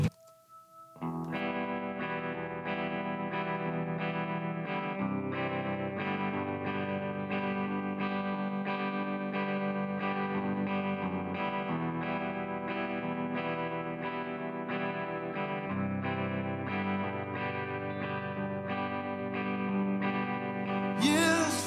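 A band's rock single from its third album, released in September 2005, plays on its own, with heavily distorted electric guitars over a steady, driving beat at an even loudness throughout, after a brief quiet start.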